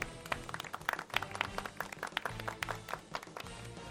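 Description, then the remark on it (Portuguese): A canned applause sound effect: dense, continuous clapping from a crowd, a steady wash of sharp claps lasting about four seconds with no voices over it. “Bom, então começando mais um Procrastination, hoje sobre velharias tecnológicas, mas antes, antes de tudo, eu queria mais uma salva de palmas eletrônicas, porque temos outro e-mail.”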